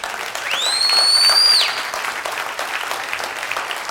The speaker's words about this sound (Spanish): Ahí sí le puedes dar un aplauso al Señor.